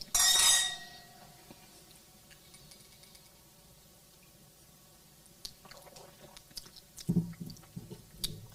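Glasses of Premier Le Vieux Merlot wine clink together sharply in a toast right at the start, a bright ringing chime that fades within a second, followed by quiet sipping and soft mouth sounds, with no talking.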